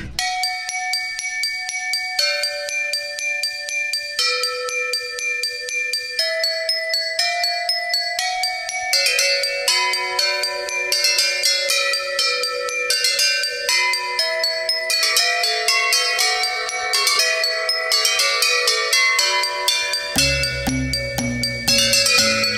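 A melody played on household objects, tools and accessories not made for music, in an attic, with bright, ringing bell- and glass-like tones tapped in a steady rhythm. Layers thicken midway, and a deeper, fuller sound joins near the end. No one speaks.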